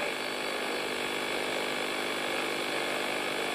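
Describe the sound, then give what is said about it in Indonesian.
A motorcycle engine runs steadily throughout, a continuous buzzing drone with a constant pitch and no pauses, loud with no voices. “Asalnya kan ya motor nih”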